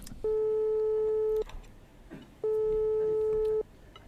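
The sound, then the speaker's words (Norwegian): Two long, steady telephone ringing tones sound a second apart as a call is placed to a food historian, loud and clear over a faint murmur of background noise. “Ja, vi ringer han, vi.”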